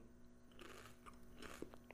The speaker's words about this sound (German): Versuchst du jetzt echt leise zu kauen?